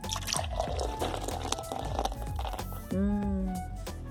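Crinkling and clicking of a cold beer being opened, followed by a brief liquid gurgle as it's poured, with no one talking.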